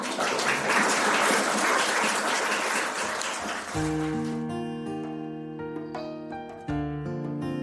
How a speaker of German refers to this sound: Danke für Ihre Aufmerksamkeit. Applaus